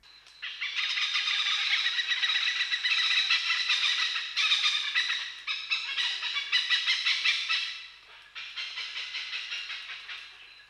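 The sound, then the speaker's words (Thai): An oriental pied hornbill, a small hornbill of Thailand, gives loud, harsh cackling calls that repeat rapidly and continuously for about ten seconds, a dense chattering chorus with a brief dip before resuming, no one talking. “หรือว่านกแก๊ก เป็นนกเงือกขนาดเล็กของประเทศไทย แล้วก็มีเสียงร้องแก๊กแก๊กแก๊กแก๊กแก๊กแก๊ก”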